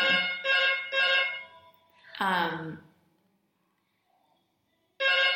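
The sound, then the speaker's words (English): A phone rings in the background with a quick string of three bright, trilling bursts, then falls silent before ringing again. A person briefly murmurs in between. “sorry about the phone in the background.”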